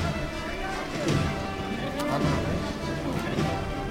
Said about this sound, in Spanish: Toca el martillo, toca el llamador.